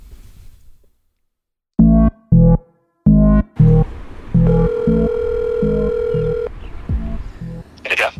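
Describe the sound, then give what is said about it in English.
A phone call being placed by a person outside on a busier street, about a hundred feet from their house: four short, loud electronic ring tones pulse in quick succession, then a longer steady line tone holds for a couple of seconds, with faint voice and background noise afterward. “I'm going to head outside and I'm going to call you on the phone.”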